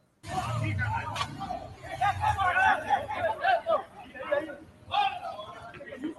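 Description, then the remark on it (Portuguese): A dense crowd roars and shouts continuously, a loud wall of many overlapping voices with bursts of louder yelling, sounding like stadium fans heard through a video's speaker. “Mas é bom a gritaria mesmo, tá aí, ó.”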